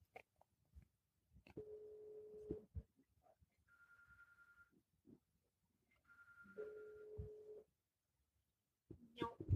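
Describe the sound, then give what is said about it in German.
A phone ringback tone plays over a speakerphone during a call to a mobile phone, steady tones alternating between a lower and a higher pitch in two cycles, with small clicks and handling noises between them. “rufe Ines auf dem Handy mit Lautsprecher an”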